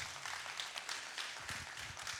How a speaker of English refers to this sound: That's a great time to clap.